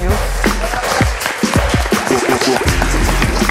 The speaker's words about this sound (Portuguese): E agora palmas para a nossa próxima convidada